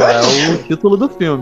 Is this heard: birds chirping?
no